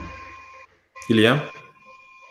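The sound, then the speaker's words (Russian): A call connection briefly cuts out to total silence for about a third of a second, then a voice comes back asking a short question, with steady thin tones humming under the line. “А вот ты пропал?”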